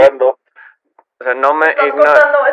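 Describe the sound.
A voice mimics a phone line breaking up, as if passing through a tunnel: a short vocal burst, choppy fragments separated by silent dropouts, then a longer stretch of garbled, wavering vocalizing, fairly loud.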